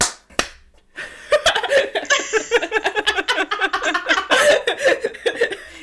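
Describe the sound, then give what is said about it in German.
A group bursts into applause all at once on a counted cue of "3, 2, 1, go", a dense run of sharp hand claps lasting several seconds, with a few laughs mixed in before it fades. “ich habe das Go abgewartet und dann geklatscht.”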